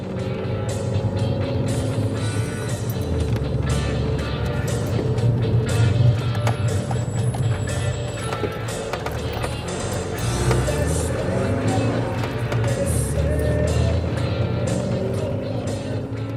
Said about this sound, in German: ist in seinem klapprigen Auto nach Chilpancingo unterwegs, der Hauptstadt des Bundesstaats Guerrero, einer der ärmsten und gewalttätigsten Regionen Mexikos.